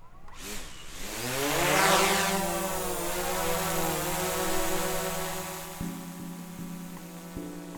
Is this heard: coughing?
no